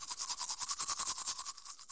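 Close-up scrubbing of a toothbrush against teeth, a quick, steady back-and-forth rhythm of bristly, hissing strokes, about eight per second, continuing without any voices.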